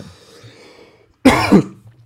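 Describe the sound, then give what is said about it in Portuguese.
A single harsh cough bursts out after a quiet moment, with a second rougher push right behind it, then fades back to near silence; the person is coughing from emotion. “tô até tossindo aqui de emoção”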